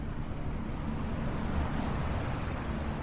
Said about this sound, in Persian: سوار موتور زکریا شدم و راه افتاد